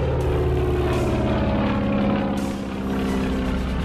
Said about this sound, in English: he's just in time to see Boeing turn the plane into the wind, gun the engine, and lift off